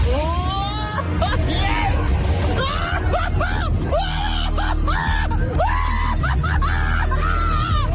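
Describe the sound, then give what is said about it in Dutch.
People scream and shriek in rising, wavering bursts over a steady mechanical rumble of a fairground ride, with loud continuous noise and overlapping voices throughout, while a radio presenter broadcasts live from inside the ride. “Nou, dat is het moment dat hij live op de radio is... terwijl hij in een kermisattractie zit.”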